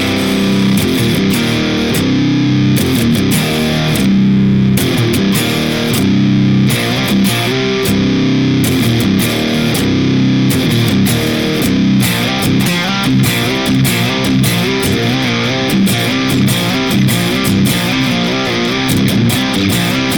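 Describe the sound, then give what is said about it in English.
A loud, distorted electric guitar plays a reference tone continuously through an effects pedal set with blend at 1 o'clock, output at 2 o'clock, time at 10 o'clock and compression at 1 o'clock, for about twenty seconds, with chords struck in a steady rhythm and sustained notes in between. No one speaks. “So blend is at 1 o'clock, output is at 2 o'clock, time is at 10 o'clock, and compression is at 1 o'clock. Uh, that being said, here is reference tone.”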